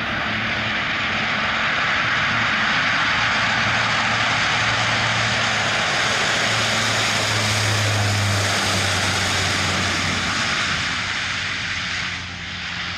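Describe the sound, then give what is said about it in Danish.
A steady, loud roar of the turboprop engines of a Danish Air Force Hercules transport aircraft used for the Christmas supply drop in Greenland. A broad drone with a low pulsing hum underneath holds constant throughout, with no voices. “Piloten Tage er netop vendt hjem fra årets såkaldte juledrop i Grønland med flyvevåbnets Hercules transportfly.”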